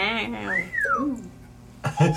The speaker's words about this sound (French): Siri? Siri? Est-ce que t'as habitué Siri quand tu la siffles pour euh, l'appeler?